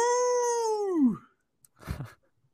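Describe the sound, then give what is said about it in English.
A wolf howls once, a long steady tone that holds its pitch for about a second and then slides down and fades. A short breathy, noisy burst follows after a pause. “Oh, there's a wolf in there.”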